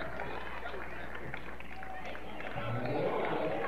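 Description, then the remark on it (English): A steady, dense wash of basketball crowd noise fills a gym, with Elm Creek fans cheering and murmuring at a constant moderate level late in a game that sends their team to a conference championship, mixed voices blending together without pause. “And Elm Creek coming to the realization that they will play for a conference championship tomorrow. They're starting to make just a little bit more noise.”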